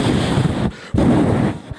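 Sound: wind blowing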